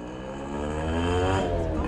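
An election campaign car in Mexico, during local and legislative elections, drives along the street. Its engine hums steadily and grows slightly louder as it rolls past, with a faint indistinct voice or loudspeaker mixed into the traffic noise.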